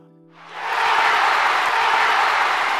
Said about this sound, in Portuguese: Ouça a multidão. A polícia secreta fez com que ficassem contra nós.